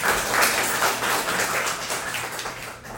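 An audience applauds steadily for about three seconds, a dense, even patter of many hands clapping at a constant moderate loudness, with no voices over it.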